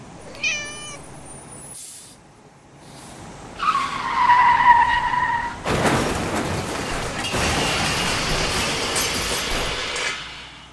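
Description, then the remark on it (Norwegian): A cat meows once, then a car's tires screech in a long high squeal before a loud crash bursts in, followed by several seconds of rattling, crunching debris and noise, as a car hits a cat fitted with a microphone and transmitter in the CIA's 1960s Acoustic Kitty spy-cat project. No one speaks. “Sånn endte CIAs prosjekt med spionkatter på 60-tallet. Én katt, én avansert mikrofon med sender, én bilulykke og null hemmeligheter.”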